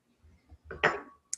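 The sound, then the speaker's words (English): A few soft low knocks, then a single wine glass clink rings out with a short sustained tone before fading as a woman drinks Chilean wine, fairly quiet, with a tiny sharp tick at the very end. “As she drinks her glass of wine, Chilean wine.”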